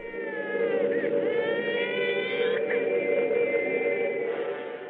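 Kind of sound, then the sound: signal or alarm, air raid siren wailing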